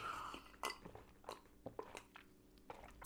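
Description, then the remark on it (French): Someone drinks Kong Strong: wet sips, swallows and small mouth clicks at an uneven pace, with a sharp, bright click at the very end. No one speaks. “Attendez, je bois du Kong Strong parce que là, je suis en train de m'énerver.”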